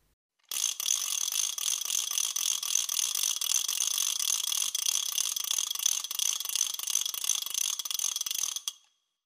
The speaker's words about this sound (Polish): Film pokazuje proces odtwarzania alfabetu wymyślonego niegdyś specjalnie do wygrywania na trajkotkach całych zdań. Karako Taką nazwę nosiła ta czynność.